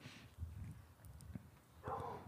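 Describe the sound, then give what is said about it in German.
A dog gives a short, fairly loud vocal outburst toward the end, preceded by soft shuffling and clattering noises. “meldet sich auch direkt.”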